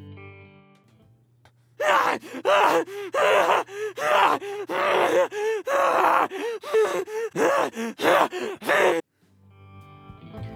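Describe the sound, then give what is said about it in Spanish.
An infected runner creature, the first stage of infection in a video game, screams in a rapid string of harsh, gasping shrieks, loud, about sixteen ragged bursts separated by brief breaths over a faint low hum. “Esta es la primera etapa, los corredores, y pues bueno, como lo dije, están desorientados, solamente están gritando y corren sin control.”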